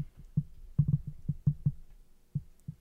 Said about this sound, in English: for those of you wondering what that heartbeat was, that was the dog walking over the microphone cord. Did she do that? Yeah.